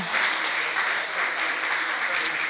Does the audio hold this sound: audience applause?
yes